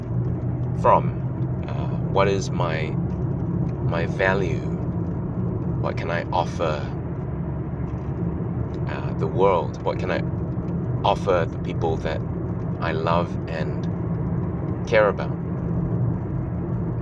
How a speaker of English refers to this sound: Um, by the way, if you can hear some road noise in the background, that's because uh, that is road noise. I'm driving to work this morning.